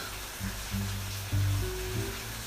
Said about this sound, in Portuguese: Hoje chove aqui em Rondonópolis, muita água.